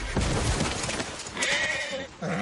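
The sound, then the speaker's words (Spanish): A horse struck by a sword as it falls lets out a shrill, strained whinny that wavers in pitch. It is set against a dense, noisy clatter of battle sounds. “Bron da un espadazo al caballo que cae.”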